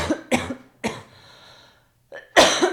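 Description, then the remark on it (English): A run of harsh, chesty coughs from a person getting over a sickness: two quick bursts, a third after a short pause, then a louder double cough at the end, with no talking. “We're both getting I'm still s- over our coughs and sicknesses.”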